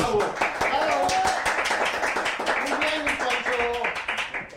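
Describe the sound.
Steady applause from a group, dense overlapping claps carrying on for several seconds at a fairly loud, even level, with some voices chattering underneath.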